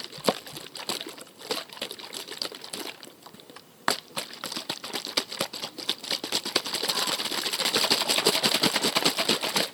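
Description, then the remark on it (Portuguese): A plastic bottle holding about two fingers of water is shaken continuously, giving a dense crinkling, rattling patter of sloshing and plastic clicks that grows louder and busier toward the end. Nobody speaks. “Uma garrafa de plástico que eu coloquei ah. dois dedinhos de água e balancei aqui para vocês”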